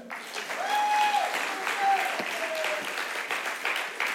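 An audience claps steadily for a few seconds, a dense wash of applause filling the room, with a faint whistle or tonal sound sliding through near the start.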